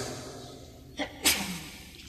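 A single sneeze, preceded by a quick catch of breath, bursts out sharply and fades within half a second against a quiet hum, with no talking.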